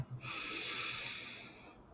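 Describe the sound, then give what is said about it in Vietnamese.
A long, deep inhale drawn through the nose, filling the lungs fully during a guided breathing exercise: a steady airy hiss that swells and then gradually tapers off over about two seconds, clear with no talking. “Hít thật căng nhé.”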